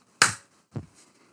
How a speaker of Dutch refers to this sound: We, moet, ja, we moeten even klappen. Oh ja, even klappen. 3, 2, 1.